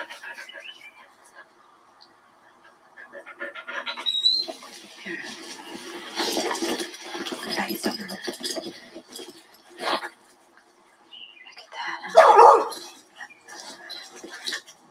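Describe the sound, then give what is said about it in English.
A female dog barks and yips while playing fetch with a stick, with one loud, sharp bark near the end standing out above scattered rustling and soft, murmured voices. “You're such a good dog. Go get it, Lou. Go get that stick.”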